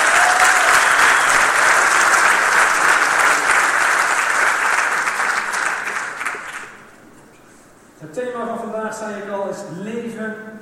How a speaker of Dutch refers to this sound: Ik ben ontzettend trots op deze mensen. En geef ze eens een applaus.